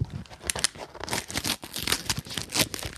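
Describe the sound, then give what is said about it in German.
Pink paper packaging holding pens shaped like toilets being torn open, a steady run of crisp ripping and crinkling bursts lasting a few seconds, with no voices over it. “Wir reißen es jetzt mal auf, mal ganz okay.”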